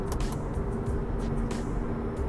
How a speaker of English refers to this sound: Man, the car is really loud, man. It's crazy